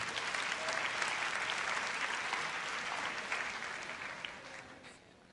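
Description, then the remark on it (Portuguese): An audience applauds steadily, a dense wash of many hands clapping that holds strong for several seconds before beginning to thin and taper off near the end. “Pode aplaudir.”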